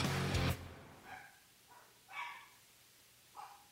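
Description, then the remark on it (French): A dog named Yannick barks several times at uneven intervals, opening with a loud burst followed by three or four shorter, fainter woofs, with no one talking. “Et salutations également au chien Yannick qui euh, participent participe à ce podcast.”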